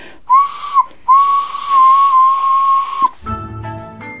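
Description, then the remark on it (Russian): A clay whistle is blown: two short piping toots, then one long, steady, shrill note lasting about two seconds, before a lower, buzzier tone takes over. “Высокий стеллаж заставлен разноцветными свистульками и глиняными барынями.”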